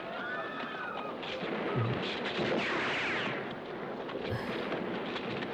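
gunfire

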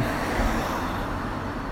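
car passing by

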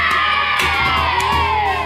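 children shouting and cheering

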